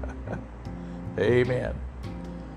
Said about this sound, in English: Albeit in California, in Lodi today, we're expecting a temperature of 106 degrees. So the noise you hear in the background might be my air conditioner doing its job.